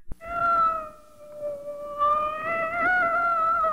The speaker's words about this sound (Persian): گربه خالخالی مامان بزرگ به اتاق اومد گوشه لباس مامان بزرگ کشید و گفت میاو میاو من گرسنمه